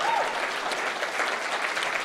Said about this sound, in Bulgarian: О, ако ръкопляскаш, ръкопляскай, като че наистина вярваш.